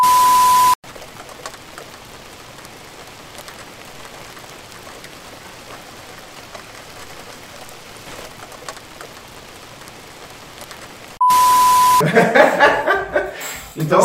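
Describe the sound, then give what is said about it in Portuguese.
A steady, hissing rush of falling water, like rain pouring down, runs unbroken for about ten seconds between two short electronic beeps, followed by people laughing and chattering. “É, qual é o som da água caindo?”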